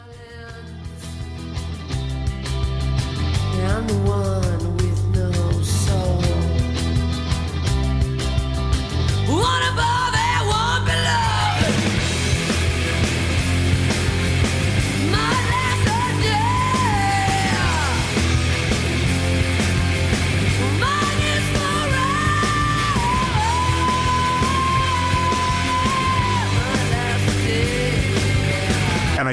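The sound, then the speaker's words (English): A female singer wails and screams in high, sliding notes over a loud, driving rock band, holding long strained cries that cut through the dense guitars and drums for the whole stretch. “they're quick and they're she just is wailing and at the time i had never heard a woman sing”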